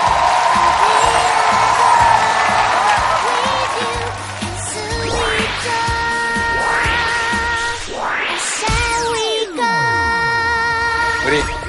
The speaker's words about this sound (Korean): 오늘 게스트 모시겠습니다. 여러분 박수로 환영해 주십시오.